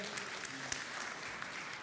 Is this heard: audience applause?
yes